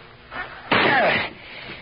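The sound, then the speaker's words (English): A shoulder rams into a pine door to break it open: a soft bump, then one loud, heavy thud with a brief rattle, with no talking. “Let me take a crack at it with my shoulder first.”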